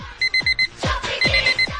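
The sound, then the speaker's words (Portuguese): A cheap pink alarm clock with a piece missing rings with loud, shrill electronic beeps in quick bursts of four, repeating after a short pause, mixed with falling swooping tones, unaccompanied by voices. “Vamos colocar agora nesse exato momento aquele despertador de 1,99 cor de rosa”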